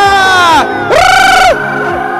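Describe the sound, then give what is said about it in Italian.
An audience applauds and cheers a performer being thanked, with two long, loud whooping shouts that rise and fall in pitch over a steady bed of crowd noise and chatter. “Vorrei fare un ringraziamento e sentire il vostro applauso per i migliori al mondo”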